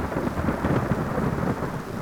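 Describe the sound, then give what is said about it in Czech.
A thunderstorm over a forest with a deep, continuous rolling rumble of thunder over steady rain, dense and fairly loud throughout the short stretch, with no voices. “Věděl, že to nemá cenu, že i kdyby se Tereza vrátit chtěla, přes bouři ho neuslyší ani neuvidí.”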